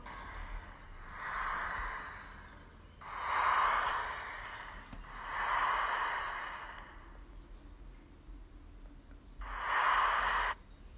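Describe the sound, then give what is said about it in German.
A soft, breathy hiss from the game Brawl Stars, heard after loading stopped at 100%, swells and fades in four slow waves, like surf rolling onto a beach, with a faint steady noise between surges and no voices. “Meiner Meinung nach hört sich das an wie Meeresrauschen.”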